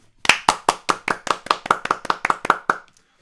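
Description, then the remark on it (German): A quick burst of spontaneous hand clapping for Erik Range, roughly a dozen sharp, evenly spaced claps in a steady fast rhythm, fairly loud, with no talking over it. “Ein, ein, ein, ein spontaner Applaus für Erik.”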